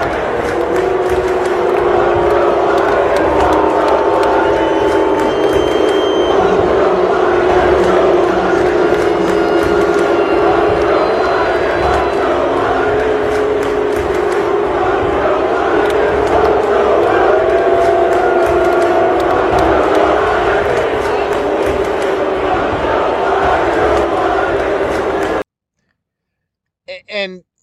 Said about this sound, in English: I don't know if that's what you can faintly hear in the backdrop is "Let's Go Brandon," but it did sound like it. But those were boos. That's what we were hearing there, boos, and rightfully slow, rightfully so.